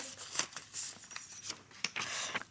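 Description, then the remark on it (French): Crisp paper rustling and crinkling in several quick bursts as a small slip of paper is drawn from a cap and unfolded, fairly quiet with no talking. “Je prends un papier”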